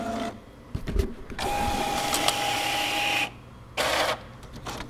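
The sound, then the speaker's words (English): A warehouse printer, low on ink, whirs in uneven bursts with a thin steady whine, stopping and restarting amid clicks and clunks as it strains against a paper jam, with no talking. “And a paper jam.”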